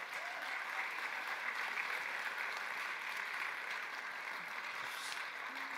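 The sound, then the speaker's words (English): A crowd applauds steadily, a dense, even wash of many hands clapping at once that holds at a constant level throughout, with no voices standing out, as an Argentinian fan is invited up for a morning interview. “If you could come join me for our interview this morning, can we clap for my friend”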